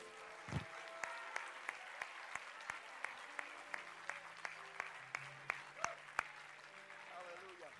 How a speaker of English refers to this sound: Put your Bible down and clap your hands unto the Lord. Somebody just ought to open your mouth and give God praise.